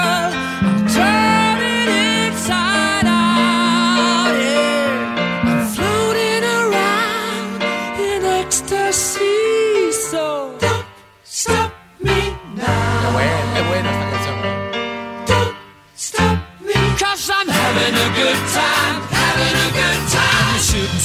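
A loud, full-band rock song plays with a sung vocal over piano and driving accompaniment, briefly dropping out a couple of times before surging back in.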